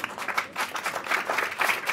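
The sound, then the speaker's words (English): A crowd applauds steadily, a dense patter of many hands clapping at once with a bright, crackling texture that holds a fairly even loudness throughout. “and it's true and that's worth a clap up because i think”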